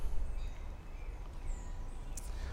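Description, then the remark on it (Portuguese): A couple of faint, brief bird chirps over a steady low outdoor rumble in the Jardim do Baobá garden on the bank of the Capibaribe River, among olive, mango and baobab trees, with no one talking. “aqui na beira do rio Capibaribe, aqui no Jardim do Baobá, um lugar muito aprazível, acompanhado aqui da pé de azeitona, pé de mangueira, do baobá, dos passarinhos, então emanando boas vibrações para você.”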